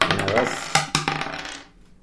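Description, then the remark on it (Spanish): Three dice are rolled at the same time on a table, clattering and tumbling across the hard surface in a quick burst of sharp clicks, settling after a second or two; fairly loud, with no talking. “Lanzamos el dado los tres al mismo tiempo.”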